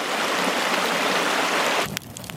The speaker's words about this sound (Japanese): 川のせせらぎ